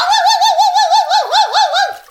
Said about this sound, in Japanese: 文鳥が現れました